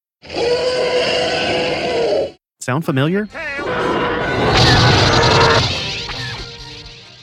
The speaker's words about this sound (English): This was one of those times when Ben used the Fox sound library. Here's a clip of some elephants from the 1958 movie The Roots of Heaven.